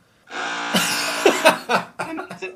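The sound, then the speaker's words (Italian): A chainsaw starts up after a brief silence and runs with a steady, harsh buzz, surging and revving unevenly a few times, loud. “Ecco, sto qui con una motosega a fianco adesso.”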